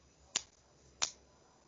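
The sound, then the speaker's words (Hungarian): Two short, sharp hand claps, about two-thirds of a second apart, each a crisp snap that fades quickly into a faint background hiss. No one speaks. “Vagy Tapsoltam egyet.”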